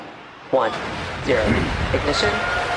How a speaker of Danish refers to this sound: Det her, det var lyden af en af SpaceX's Falcon 9-raketter, der blev sendt afsted i december 2018 fra Florida med forsyninger til den internationale rumstation.